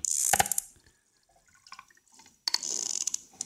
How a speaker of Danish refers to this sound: det er kliklyde fra en tandval